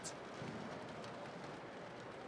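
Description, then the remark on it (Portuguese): Steady rain falling, a soft continuous hiss with a faint patter throughout and no voices, fairly quiet and even from start to finish. “Meu Lucas nasceu num dia de chuva como este.”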